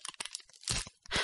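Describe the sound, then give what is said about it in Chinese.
Crackling bursts of adhesive tape being torn off a wall: a few short ripping ticks, then two longer, louder rasping pulls. No one is speaking. “那是，那是撕胶带的声音，不知道是什么东西把墙上的胶带撕下来了。”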